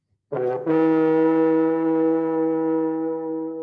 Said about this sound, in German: trötet schon wieder ins Horn. Das bedeutet einfach, dass wir uns wieder mal bei euch bedanken müssen für den Support, den ihr leistet.